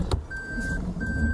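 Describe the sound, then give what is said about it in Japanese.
A bicycle passes by on a street, with a short click followed by a thin, steady squeal over a low outdoor rumble of wind or traffic. “ちょっと今自転車が来てますけど大丈夫”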